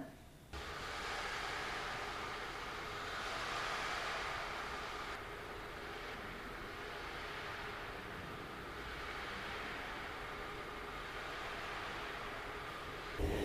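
A dense, steady hiss imitating rain pattering against a window, holding at an even level with slight swells for about thirteen seconds, with no talking over it.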